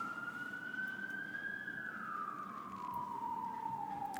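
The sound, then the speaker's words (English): An emergency vehicle siren wails steadily outside in New York. Its pitch slowly climbs, then slides downward as it passes, heard over a low background rumble of street traffic. “New Yorkers, stop committing crimes. We're trying to record a podcast here.”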